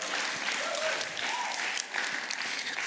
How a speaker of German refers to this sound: Ich finde das einen Applaus wert, oder? Ja?